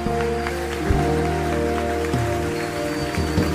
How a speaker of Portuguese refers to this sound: Vamos aplaudir a Jesus por essa grande decisão.